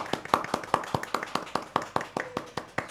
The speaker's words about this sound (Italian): E andiamo subito a conoscere chi è che sta applaudendo